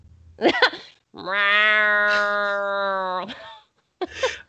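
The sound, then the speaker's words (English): A person imitates a cat with one long, drawn-out meow held steadily for about two seconds. Short bursts of voice, like laughter, come just before and after it. “Well, for that to happen, you have to take us out with a cat meow.”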